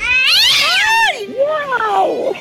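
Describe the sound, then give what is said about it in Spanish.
A cat meows twice in a row in the distance: first a long, rising-and-falling wail, then a shorter, quavering cry. Both are loud and clear, with no talking over them. “Y a lo lejos se escuchaba que maullaba un gato.”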